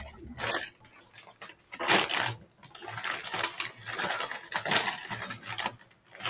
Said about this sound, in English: I'll just listen so to you bash through your fucking containers over there